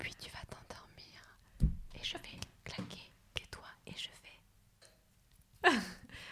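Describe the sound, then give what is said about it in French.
A voice whispers softly in short breathy phrases, with a couple of sharper breaths or mouth sounds standing out, in an intimate ASMR style. “Souvent, la SMR, c'est Je vais te parler comme ça.”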